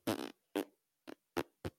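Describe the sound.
A voice imitates a whoopee cushion with five blubbery, buzzing fart noises, the first long and the rest short bursts in an uneven sequence, fairly loud.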